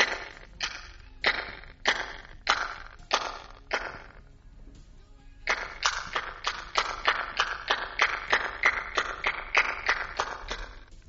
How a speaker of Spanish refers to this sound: Si nuestras palmadas sonaran en el centro del monumento, el eco que nos devolvería esta estructura de 4.000 años de antigüedad sería este.